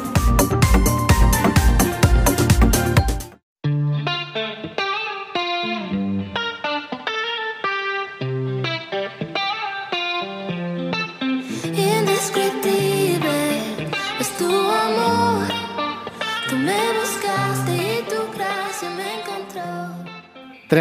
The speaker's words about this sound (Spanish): de esa canción que estábamos escuchando, sugerida por Fernanda